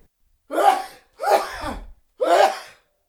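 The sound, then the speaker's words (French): A man gives three loud, voiced sneezes in quick, evenly spaced succession, each a short burst with a breathy tail, sounding like a person acting them out, with no other sound around them. “Et il éternua trois fois encore.”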